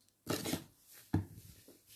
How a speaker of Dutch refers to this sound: Ik neem even snel een slokje van mijn koffie, anders wordt je koud.